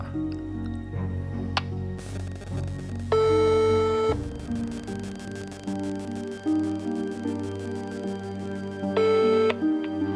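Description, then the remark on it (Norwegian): Two telephone ringback tones sound over a faint steady hum, each about a second long and spaced several seconds apart, heard through the phone line while a call to an excavator operator in Halsa waits to connect. “Eh, det er i hvert fall én jeg kan prøve å ringe han, da.”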